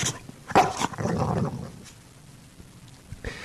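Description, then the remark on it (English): A Sony robot companion dog, programmed to play soccer, gives a couple of sharp electronic barks, followed by a low, drawn-out growling tone and a quieter pause, then one more short bark near the end. “the CEO of Sony telling me how cool it was to have this companion dog who was programmed to also play soccer with you.”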